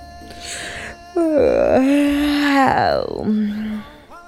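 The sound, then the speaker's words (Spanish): A voice imitates the long, drawn-out yawn of the family cat, Nahuel, a loud wavering moan that rises, slides downward and trails off, with a quieter breathy lead-in before it. “Hasta el gato de la familia, llamado Nahuel, olvidó su siesta y luego de dar un gran bostezo”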